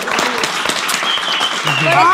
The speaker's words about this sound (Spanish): Así que muchas felicidades y un aplauso enorme para